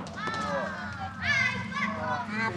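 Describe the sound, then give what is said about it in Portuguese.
A crowd of children playing and shouting at once, high excited voices overlapping in a constant lively din, loud throughout with no single voice standing out. “É só ouvir essa barulheira aí que a gente já visualiza tudo, né?”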